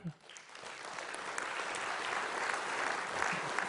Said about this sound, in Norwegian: En applaus til dem.